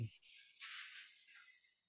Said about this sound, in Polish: E, a nie, przepraszam, teraz się klimatyzator włączył, kot się wystraszył.